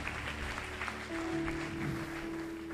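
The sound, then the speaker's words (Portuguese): An audience applauds God steadily in a dense, continuous patter of many hands, with sustained keyboard-like tones humming beneath the applause throughout. “Você não vai aplaudir a Deus, não?”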